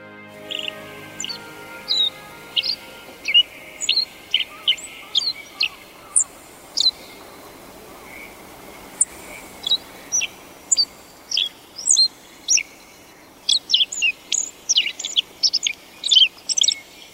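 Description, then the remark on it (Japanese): A black-faced bunting, in willow shrubs on the northern shore of Lake Kitaura in eastern Ibaraki Prefecture, Japan, runs through its seasonal practice song: scattered, irregular bursts of short, high chirps and thin tweets over faint background hiss, with no voices present. “湖岸には柳の灌木が並木のように植えられています柳の中から青地の鳴き声が聞こえてきました”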